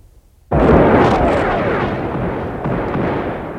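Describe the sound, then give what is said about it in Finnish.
A heavy artillery barrage pounding the ground on the opposite bank of a river erupts suddenly after a brief quiet moment, becoming a loud, continuous roar of booming explosions with deep rumbling and occasional swells. No one speaks. “Vastarannalla myllersi raskas keskitys maata.”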